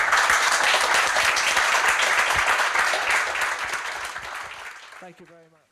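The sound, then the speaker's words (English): An audience applauds in a dense, steady wash of clapping for several seconds, then it fades away and a voice briefly starts speaking at the very end. “And please give a massive round of applause for these guys.”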